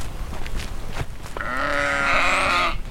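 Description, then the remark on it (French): A ewe lets out a long, loud bleat with a wavering, harmonic tone, preceded by softer background rustling and faint scattered animal sounds, on a farm pasture where a flock of 77 lactating ewes grazes. “Et puis voilà, les brebis, elles pâturent, euh, ici toute l'année, enfin quasiment toute l'année, puisqu'on les rentre au mois de décembre pour les, pour les mises bas.”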